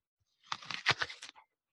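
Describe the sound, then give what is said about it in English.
A crisp bite into a Pinata apple: a short burst of crackly, wet crunching lasting about a second, several snapping pulses in quick succession, fairly loud against silence, with no talking. “I have not tried it yet, so I'm gonna just see mm-hmm. um, what you say about the crunch, about the flavor, and so on.”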